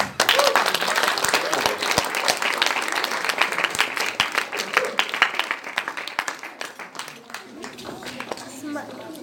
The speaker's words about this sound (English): You sang beautifully, you danced wonderfully, you're so engaged. Give yourselves a big applause.